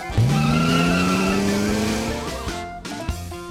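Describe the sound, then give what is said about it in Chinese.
A car brakes hard with a loud, sustained tire screech, a rising whine that holds for about two seconds before cutting off, followed by a short rumble and a thump. No one speaks. “那你他妈还踩着油门不放， 赶紧刹车啊！”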